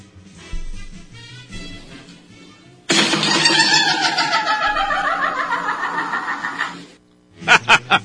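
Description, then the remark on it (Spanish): A door creaks loudly and strangely as it closes, a long warbling squeal with a falling pitch, almost like a voice chuckling, followed by three quick sharp clacks. “una puerta que hace un ruido muy extraño y dice el vato, no sé si echarle aceite o traer un exorcista.”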